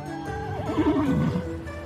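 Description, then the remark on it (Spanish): A horse, ridden by Paucón at the head of a small convoy on the road, lets out a single whinny, its shrill, wavering cry sliding downward in pitch over about two seconds, clear and unaccompanied by any voices. “Paucón lidera el pequeño convoy, montando su caballo y sonriendo de oreja a oreja.”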